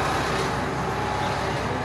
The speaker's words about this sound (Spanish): Perdón por el ruido, hay un camión acá al lado mío.